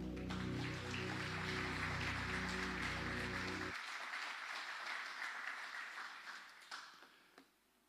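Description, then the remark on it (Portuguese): A church audience applauds steadily, praising the Lord for a man's life as he is called up, dense clapping filling the space, with a low sustained musical drone underneath that cuts off midway; the applause then thins and trails off with a few scattered claps. “Você pode aplaudir o Senhor pela vida dele?”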